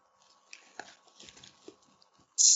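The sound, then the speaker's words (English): Quiet munching on biscuits: irregular crunchy crackles and soft bites over a couple of seconds, then an abrupt loud burst of noise at the very end. “Much was munching to my biscuits before we start.”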